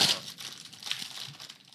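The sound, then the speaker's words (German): Crisp crinkling of a thin plastic fortune cookie wrapper, a continuous rustle with a sharper crackle at the start and small bursts throughout, with no voices. “Es raschelt jetzt ein bisschen, Achtung.”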